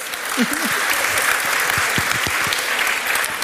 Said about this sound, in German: Also ah. ich, äh, verhaltener Applaus.